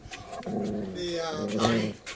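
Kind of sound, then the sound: animal, dog whimpering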